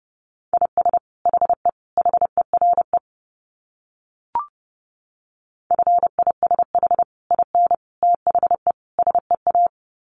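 Fast Morse code at about 30 words per minute: a single steady mid-pitched tone keyed in quick short and long beeps, two runs separated by a pause with a brief click.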